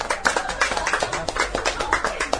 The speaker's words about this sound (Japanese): ありがとうございました。拍手お願いいたします。